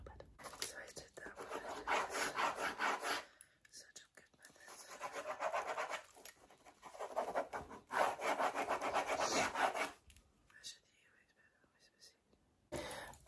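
Crackly rubbing and scratching of fingers in the ears to unblock them, coming in three long bursts of a few seconds each with short pauses between, then a brief final rub.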